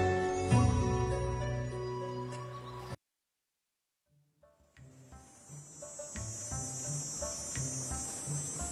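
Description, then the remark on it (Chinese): After a few seconds of music and a brief silence, cicadas start up on a scorching midsummer day in Chang'an, in a steady, high-pitched buzzing drone that carries on unbroken to the end, with faint lower sounds underneath. “仲夏长安，西市缥缈阁，烈日炎炎，蝉鸣声声，让人觉得燥热难耐。”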